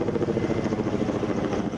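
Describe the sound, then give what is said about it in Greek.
Engines of Air Tractor firefighting propeller aircraft drone steadily and loudly at Democritus airport in Alexandroupolis as the planes, having landed, fill with water from tanks to fight the large forest fire in the Dadia forest; a dense, throbbing low hum with a slight pulsing rhythm that continues without a break; no one speaks. “Είναι η στιγμή που τα αεροσκάφη Ελτράκτορ έχουν προσγειωθεί στο αεροδρόμιο Δημόκριτος της Αλεξανδρούπολης και γεμίζουν νερό από τις δεξαμενές προκειμένου να κατασβέσουν τη μεγάλη πυρκαγιά που καίει στο δάσος της Δαδιάς.”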